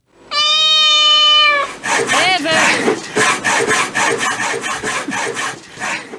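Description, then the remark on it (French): A single long, loud cat meow, then a saw cutting through wood with quick, rhythmic back-and-forth rasping strokes that continue steadily to the end. “Non, chat avec la scie.”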